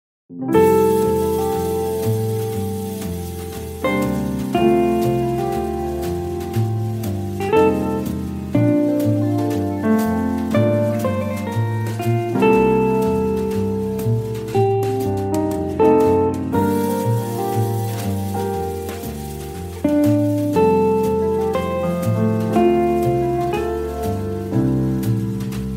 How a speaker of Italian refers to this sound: Sigla!